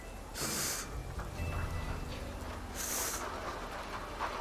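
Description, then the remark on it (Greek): A voice blows two short, sharp bursts of air about two seconds apart, fairly loud over a low background rumble. It imitates a clipped gust of breeze heard through the windows of a church, which is actually someone sweeping outside the church. “Την ώρα που προσεύχεσαι τέλος πάντων, φυσάει ένα αεράκι, κάπως έτσι ακούγεται μέσα από τα παράθυρα του ναού, και μετά ακούγεται ένα, ένα αεράκι λίγο πιο κοφτό, που κάνει κάπως”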